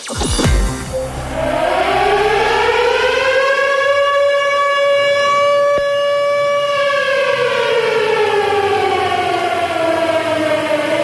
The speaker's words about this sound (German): Das klingt irgendwie bedrohlich und das soll es auch. Es handelt sich ja immerhin um eine Warnsirene und die soll vor Gefahren warnen.